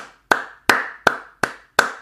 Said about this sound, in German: Da kann man schon mal Applaus erwarten.